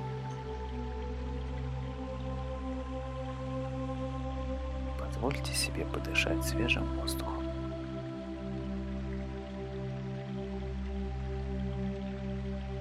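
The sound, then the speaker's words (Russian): Steady flowing river water babbles over a rocky bed under a calm spoken voice, with a brief cluster of sharp, bright splashes and drips rising near the middle before the even rush settles again. “Прислушайтесь к танцу реки над каменистым ложем.”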